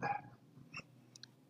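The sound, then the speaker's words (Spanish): A dog makes a brief, faint noise: one short vocal burst at the start, a softer one after, then a couple of tiny high chirps, with no one talking. “Ok, ese fue mi perro.”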